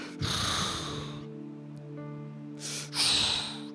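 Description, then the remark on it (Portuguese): A voice imitates lions' heavy breathing: two loud, raspy breaths separated by a low, throaty rumble. No words are spoken. “Você imagina agora Daniel na cova dos leões, ouvindo eles o respirar dos leões.”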